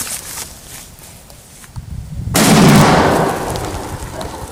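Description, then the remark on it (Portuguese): A single loud airsoft bomb blast erupts suddenly after a few seconds of quiet rustling, a broad booming burst that rolls and fades slowly over the next two seconds. “Você já imaginou alguém segurando isso? Acende e fica na mão assim, ó. Arranca a mão do cara.”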